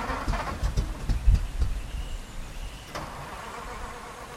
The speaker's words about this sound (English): he was again cut off by the sound of the car, again struggling to start.